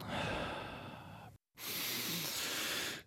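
A long, breathy inhale through the nose, a brief pause, then a slow exhale blown out through the mouth, airy and hissing, with no talking.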